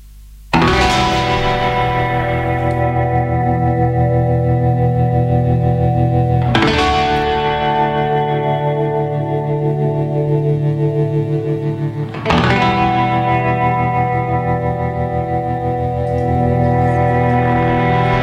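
Loud band music drenched in effects: heavily distorted, shimmering chords struck three times, each ringing out and sustaining for several seconds, with no singing.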